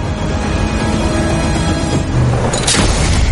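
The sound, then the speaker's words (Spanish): A large landmine explosion as a vehicle in a convoy drives onto a mine at a ranch: a dense, sustained roar of rumbling blast noise with a sharp, bright burst flaring up near the end, loud throughout and with no voices. “Se produce una gran explosión.”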